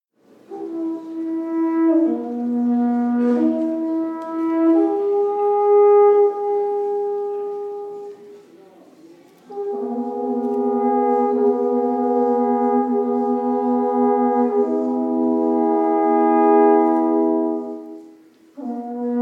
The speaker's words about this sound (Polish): Za ich pomocą można było ostrzegać przed niebezpieczeństwem na odległość. To myślę, że czas na kolejny dźwięk i teraz posłuchamy sobie, jak faktycznie te trąbity brzmiały, jakie to było głośne.